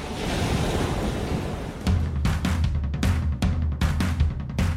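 Ocean surf rushes in a steady hiss, then turns choppier with repeated surging bursts and a low rumble, like waves breaking with some wind buffeting. No voices.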